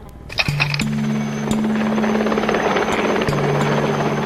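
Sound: helicopter rotor flying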